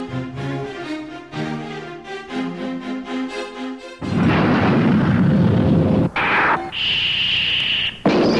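A Portuguese-language tokusatsu TV theme song intro from the show Changeman opens with a bright, sustained synth-and-brass melody, then breaks into loud roaring blasts of explosion-like noise topped by a piercing high whine. No voices are heard.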